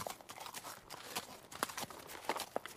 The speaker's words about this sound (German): Und die Kinder beobachteten die fünf Gestalten, wie sie das Pferd samt Schlitten an ihrem Haus vorbeizogen.